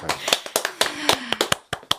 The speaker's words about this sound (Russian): Говорят, похлопайте, похлопайте.